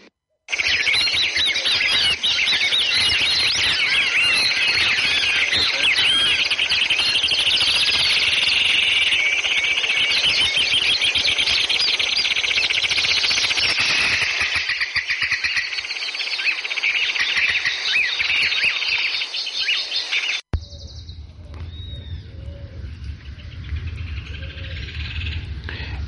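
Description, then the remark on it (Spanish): A dense chorus of birds chirps and trills continuously and loudly for about twenty seconds, then cuts off abruptly into a quieter, low background hum. “Y con el sonido de los pájaros vamos a saludar a nuestro amigo Jason Wilson.”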